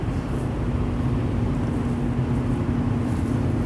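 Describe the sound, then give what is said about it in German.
A car rolls along the street with a steady, low engine and road hum and a faint droning tone, holding an even level throughout with no voices. “Und darüber bin ich auch sehr glücklich und das Auto auch, dass es äh, vor Freude rollt. Straße entlang.”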